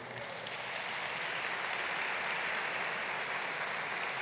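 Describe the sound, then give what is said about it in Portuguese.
A large church audience claps steadily for several seconds in applause to God, the applause swelling quickly and holding a dense, even roar of many hands with no voices standing out. “Você pode aplaudir a Deus por isso?”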